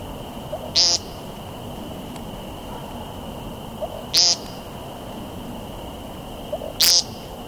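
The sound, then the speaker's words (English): A bird on the ground gives a repeated nasal, buzzy 'peent' display call, three short loud notes spaced a few seconds apart, over a quiet outdoor background with a steady faint hum. “And once they do, they'll almost immediately begin with this nasally pang, pang, pang.”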